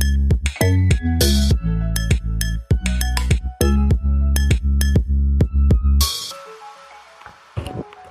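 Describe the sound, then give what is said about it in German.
A mobile phone drops right beside the microphone with a sudden loud clatter, cutting off rhythmic music and leaving a rustling, rumbling aftermath with one more small knock. “hat sich gerade das Handy neben das Aufnahmegerät gefallen, wie du gehört hast.”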